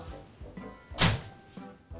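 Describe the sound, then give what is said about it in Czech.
A door slams shut once with a loud, sharp, heavy thud. Quieter low knocks and faint background noise come before and after it. “Jsi tak dramaticky bouchnu těma dveřma, ticho!”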